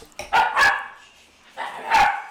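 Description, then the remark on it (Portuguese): A dog barks in a few short, loud bursts: a quick double bark, a brief pause, then another longer bark. No one is talking. “cachorro quer dinheiro.”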